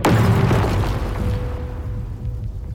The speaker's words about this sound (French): L'explosion engendre une boule de feu de près de 1000 degrés Celsius, puis un coup de poussière gigantesque.